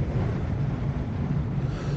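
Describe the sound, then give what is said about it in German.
Strong wind buffets a cable car gondola, a steady, loud low rumble with gusty fluctuations that fills the whole moment, with no voices present. “Hört man den Wind?”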